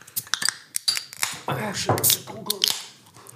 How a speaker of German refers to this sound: Zuerst mal öffnen wir ein gut gekühltes Bier. Oh, Bier.